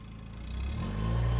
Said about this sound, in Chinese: 我听到汽车从我们房子前边疾驰而过，离开了。